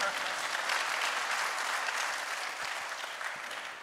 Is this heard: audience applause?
yes